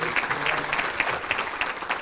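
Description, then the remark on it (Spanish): Steady audience applause for themselves and the program's production, a dense wash of many hands clapping at an even, sustained level for the full two seconds with no voices standing out. “Y desde luego a todos ustedes, por favor, un aplauso para ustedes mismos, para todo lo que es la producción de este programa.”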